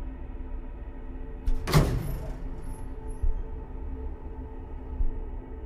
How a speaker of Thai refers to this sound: ประตูลิฟต์ปิดทันเวลาแบบเฉียดฉิว ก่อนที่พวกซอมบี้ร่างเหมือนคนรู้จักจะเข้ามาข้างในได้